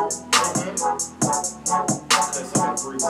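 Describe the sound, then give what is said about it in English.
A beat-driven music track plays loudly and alone, with crisp hi-hat cymbal ticks repeating in a quick, steady pattern over punchy drum hits and sustained tonal instruments. “I say turn them hi hats down a little bit.”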